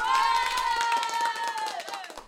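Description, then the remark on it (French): Scattered applause from a crowd in the street at the Pelleport crossroads at 8 p.m., as every evening, its sharp claps blending together, with a steady high-pitched tone sounding over it before sliding down near the end. “Peut-être qu'il fantasme et qu'il imagine que ces applaudissements lui sont destinés.”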